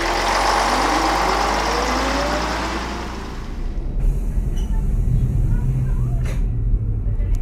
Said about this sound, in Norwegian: Sjetteklassen på Kvarnbakka skole i Kista sitter i en buss på vei til Norge.